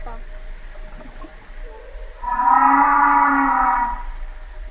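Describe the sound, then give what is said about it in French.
A humpback whale call: one long, low, resonant moan that swells in loudly and holds steady for about two seconds before fading, preceded by quieter murmuring background. “Euh, ça, c'est la baleine.”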